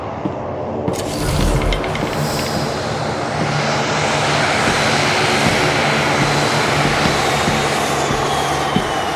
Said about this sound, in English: be landing in a field. Oh. Finally. What a flight.